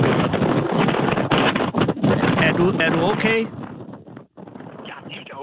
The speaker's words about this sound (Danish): Jeg kan høre, det blæser altså virkelig øh, hårdt.